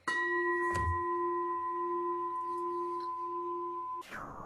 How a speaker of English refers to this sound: I, I, I, yeah, a bowl or like a bell. No, it's not a bowl. It's definitely a bell, right?